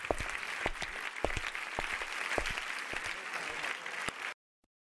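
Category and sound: crowd, audience applause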